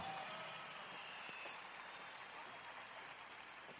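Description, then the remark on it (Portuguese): An audience applauds the translator, a dense, steady wash of many hands clapping that holds evenly for about four seconds and eases only slightly toward the end, with no voices standing out. “Um aplauso para a La Tradutora, por favor.”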